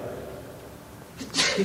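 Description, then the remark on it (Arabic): A single sneeze bursts out near the end, a quick sharp inhale followed by a loud, hissy explosive burst, after a stretch of quiet room hum. “يرحمك الله”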